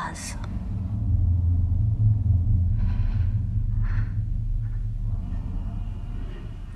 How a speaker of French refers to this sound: Vous écoutez le bruit de la mer qui commence à monter